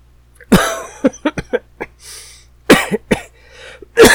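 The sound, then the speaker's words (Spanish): A person coughs in several loud bursts: a strong opening cough, a quick string of smaller hacking coughs, then another forceful pair after a short breath, with no talking. “ya decía yo que faltaba la tosecita.”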